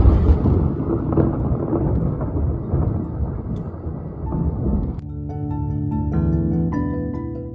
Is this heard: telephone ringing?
no